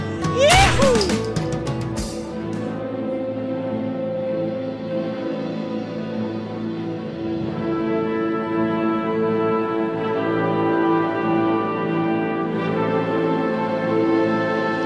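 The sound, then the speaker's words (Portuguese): The intro jingle of the show Pode Piar kicks off with a loud crashing hit, then sustained, layered tones play steadily at a consistent volume for over ten seconds, with no voices. “Solta a vinheta,”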